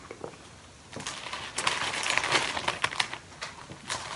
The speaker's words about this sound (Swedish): Vi ska bläddra fram till Efesiebrevet.